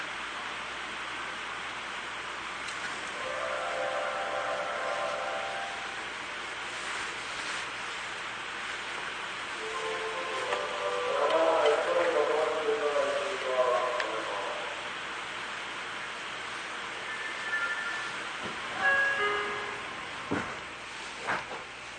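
A Seibu 40000 series electric train, the S-Train No. 4 bound for Motomachi-Chukagai, departs. Its motors give off a whining tone that climbs in pitch as it picks up speed over a steady, noisy rumble.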